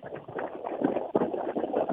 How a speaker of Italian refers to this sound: Sentiamo moltissimo il vento. Allora, eh, cerco eh... di mettermi al riparo, cerco di chiudermi in un bunker appena possibile.